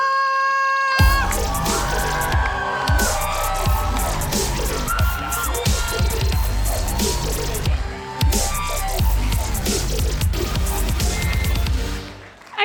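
A crowd bursts into loud, sustained cheering and applause, with shouts and whoops over dense clapping that holds steady for about eleven seconds before trailing off.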